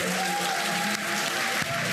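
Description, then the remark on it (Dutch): A fake applause sound effect played under a radio show: dense, steady applause, loud and continuous with a bright hissing texture of many clapping hands, running unbroken for the whole moment. “Heb je nou een fake applaus ondergezet, Arjan?”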